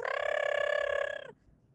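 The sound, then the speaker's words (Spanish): A loud, high voice imitates the very loud song of Paquito, a pet canary, with one steady, rapidly warbling trill that holds for about a second before cutting off abruptly. “Entonces, Paquito lo que hacía era, tenía un canto que era muy, muy fuerte, y cada vez que hablabas por teléfono no se podía escuchar, tenías que ir al teléfono que estaba en otra habitación para poder hablar, porque el chabón tipo decía...”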